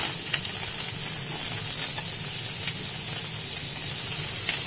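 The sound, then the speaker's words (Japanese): Chicken thighs sizzle steadily in a pan, a dense, even crackling hiss with occasional sharper pops, fairly loud and continuous throughout with no one speaking. “今焼いてるのは鶏のもも肉鶏のもも肉昔から好きでね”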